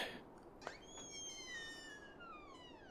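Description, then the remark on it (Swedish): A door creaks slowly open with a long, drawn-out squeal that glides downward in pitch, preceded by a soft click of the latch. It is fairly quiet, with no one talking. “Jag, jag går nog fram och öppnar dörren, tror jag.”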